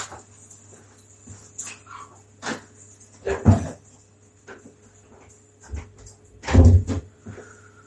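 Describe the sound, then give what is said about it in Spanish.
A small female dog weighing about a kilo and a half barks sharply in scattered bursts, with two especially loud yaps, and lets out thin whimpers in between, all over a low steady hum with no one talking. “Perra salvaje del demonio con su kilo y medio.”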